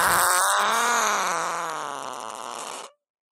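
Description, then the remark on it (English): A long, buzzy fart sound effect from a soundboard rips loudly for about three seconds, its pitch wobbling and sputtering before it cuts off abruptly into silence. “it could lead other fans to great content like our fart soundboard”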